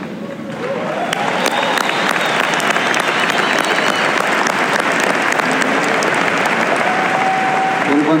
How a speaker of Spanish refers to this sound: Al que a mí me gusta aplaudir es a ese. Ese es el que se merece los aplausos.